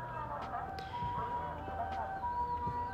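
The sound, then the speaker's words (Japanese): An ambulance siren passes by, its rising and falling tones steady and fairly loud over a low rumble of street noise, with faint voices in the background. “ちょっとあの救急車が通るので一回音声を止めますはい今救急車が、えー、通って少し音が落ち着いたのでお話を続けていきたいと思います”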